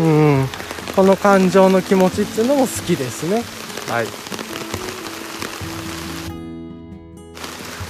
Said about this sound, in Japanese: なんか急にねザーッと雨も降ってきて多分この断片にすごい今傘がで雨が跳ね返る音も入ってると思うので